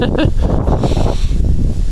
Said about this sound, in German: Ah, oh, hört er es hier? Was ist denn? eh wieder los ey, mit der ganzen Scheiße, mit dem Wind und so, weißt du.